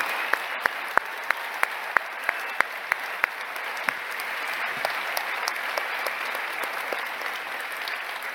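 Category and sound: crowd, warm round of applause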